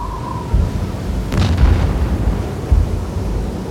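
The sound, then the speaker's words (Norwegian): A single heavy cannon boom, fired from an anchored ship in a full storm as a distress signal to the people on the island of Smøla across the fjord, goes off over a steady low rumble, followed by a rolling echo and a second, softer thud. There is no talking. “De fyrer av et kanonskudd for å signalisere at de trenger hjelp fra dem på øya.”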